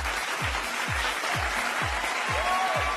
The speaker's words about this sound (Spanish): O sí le di aplausos a Jorge.